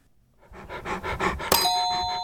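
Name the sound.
dog panting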